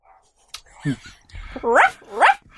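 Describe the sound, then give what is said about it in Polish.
A dog behind a door barks twice in quick succession, two loud, tonal, rising yelps near the end, preceded by a brief low grunt and some soft rustling. “Pies demon.”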